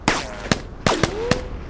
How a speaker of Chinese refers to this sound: 他说有枪声。当时我还在骂他，我说你脑壳不对，我靠，在船上哪来的枪声嘛？然后又听到外面在啪啪啪的那种声音。